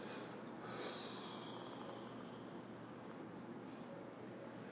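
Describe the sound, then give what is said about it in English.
A person demonstrates slow, deep breathing: a breath drawn out steadily for several seconds, a soft continuous airy rush, with no talking over it. “Well, it turns out that anybody that, that is breathing like this”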